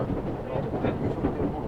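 A Tokyo Metro subway train running from Iidabashi to Nishi-Funabashi rumbles steadily along the rails, a dense low-pitched roar with faint rhythmic clatter and a brief higher whine rising over it.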